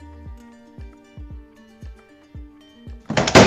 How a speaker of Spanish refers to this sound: La última puerta del baño se abrió de un fuerte golpe.